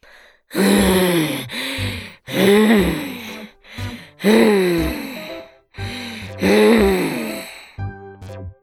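A human voice imitates a monster's heavy breathing: six loud, drawn-out, growly breaths with a moaning rasp, each separated by a short pause, ending in a brief low rumble.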